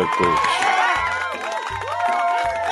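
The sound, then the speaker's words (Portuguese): A crowd applauds and cheers loudly and steadily, with many overlapping shouting and whooping voices over a dense wash of clapping, sustained throughout. “Mais um som de palmas pro Tiri Coach.”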